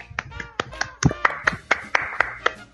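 Someone claps around a dozen times in a quick, steady rhythm, each clap a sharp crisp smack, with a faint murmur of voices beneath.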